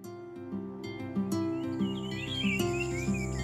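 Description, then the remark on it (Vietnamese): Light bird chirps twitter in quick, scattered bursts in a hospital garden with many trees and flowers, over a steady background of soft music, not loud, with an insect-like trill blending in. “Không gian xanh mát với rất nhiều loại cây xanh, hoa được trồng, chim hót ríu rít.”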